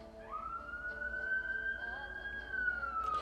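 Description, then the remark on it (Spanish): A police patrol car siren wails: one long tone climbs, holds steady for a couple of seconds, then starts to sink, over a low background rumble. “Y entonces piensas, ¿por qué no se calla la patrulla si estoy hablando?”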